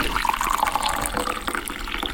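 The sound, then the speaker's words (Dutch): Coffee pours steadily into a cup at a mayor's office, a continuous gurgling splash with a rising tone as it fills, fairly loud with no one speaking. “wil je koffie of thee? Lekker, eh, koffie.”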